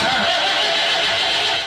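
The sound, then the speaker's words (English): A car engine grinds and strains as it tries to start, a loud, harsh, continuous churning sound that never catches, with no one speaking. “Zen Brothers Automotive doesn't want car trouble keeping you from watching the big game. So if your car sounds like this,”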